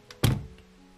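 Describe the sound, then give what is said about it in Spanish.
The front passenger door of a black Beetle car slams shut in the rain with one heavy, muffled thunk, preceded by a faint click of the handle and followed by a soft rattle as it settles. “Podríamos haber esperado unos minutos a que pare de llover, murmuró Ana cerrando la puerta del acompañante.”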